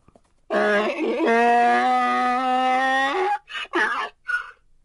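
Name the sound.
donkey braying loudly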